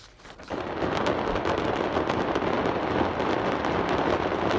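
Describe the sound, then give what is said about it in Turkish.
Dense, continuous crackling of many firecrackers bursting at once as a fireworks factory explodes and burns, a rapid loud barrage of pops and bangs with no pause. “Havai fişek fabrikası patladı şu anda.”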